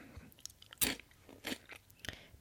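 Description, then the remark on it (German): Crunchy chewing of peanut butter cornflakes brought from America, with three sharp crackling bites spaced roughly evenly between quieter mouth sounds; no talking. “Ich esse ähm, Peanut Butter ähm, Cornflakes.”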